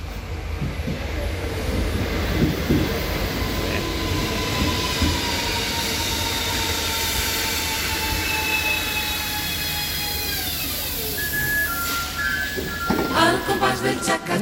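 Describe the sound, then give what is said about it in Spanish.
A train rumbles past with steady low rolling noise, high metallic wheel squeals drifting in long tones, then a burst of clattering wheels over the rails near the end. “Sí, señores, el sonido del tren.”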